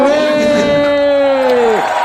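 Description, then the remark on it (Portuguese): A single loud, sustained cheering cry holds steady for nearly two seconds, then drops off sharply at the end, with a faint background crowd murmur and no clear clapping. “Aplausos, aplausos”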